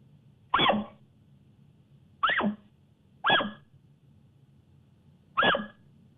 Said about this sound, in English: The thing you don't want to hear when you're in the elk woods is this, though. This is the alarm bark.